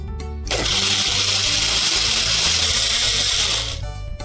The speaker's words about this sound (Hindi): इसको हमने सोक करके रखना है around three to four hours अच्छे से सोक हो जाएगा फिर उसको हम पीसेंगे इसका पानी भी हमको चाहिए इसको थोड़ा सा मिक्सी में पीस लेते हैं